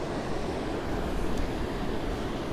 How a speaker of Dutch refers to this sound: Ik ga even iets naar achter zitten, want ondertussen komt, eh, komen de golven best dichtbij.